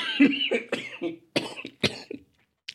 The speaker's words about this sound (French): Ah oui, et je suis encore un peu malade, donc si je tousse, euh, c'est voilà, c'est normal, vous serez prévenu